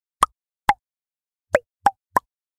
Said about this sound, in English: There are so many ways to use our own bodies to make music, like clicking my tongue.